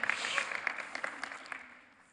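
A burst of audience applause, many hands clapping in a dense crackling patter that holds steady, then thins and fades out after about two seconds. No one speaks over it.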